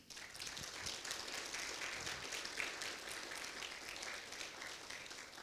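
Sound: audience applauding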